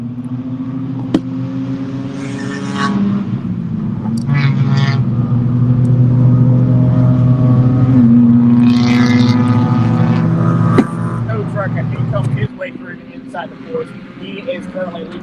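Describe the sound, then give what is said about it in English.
Race car engines drone loudly and steadily, their whining pitch rising and shifting as cars run on the track through the Flying Fortress straight toward turn 15, with faint voices underneath before the roar drops off near the end. “Take a look at the race car leading them through the flying fortress straight as they head over the turn 15.”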